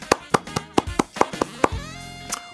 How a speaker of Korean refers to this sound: 제가 응원과 경의의 박수 보내드립니다.